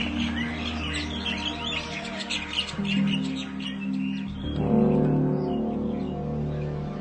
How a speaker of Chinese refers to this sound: 接着又有另一只鸟附和了一声，它们此起彼落的，更多的鸟唱起来了。顷刻间，到处都是小鸟的歌声。现在，夜已经过去，是真正的清晨了。